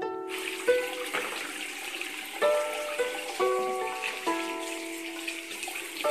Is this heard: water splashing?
yes